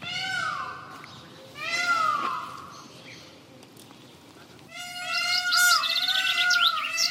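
A peacock gives loud, wailing, meow-like cries: two short calls close together, then a longer drawn-out call after a brief pause, ringing out clearly with no one talking.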